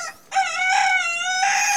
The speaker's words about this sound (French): Je suis sûre que ta grand-mère t'a déjà parlé de la beauté du chant du coq le matin. Se faire réveiller par le bruit d'un mec enroué qui se cogne le petit doigt de pied dans sa table basse Ikea.